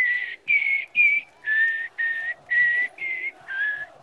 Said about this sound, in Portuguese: Tem um sabiá desavisado aqui.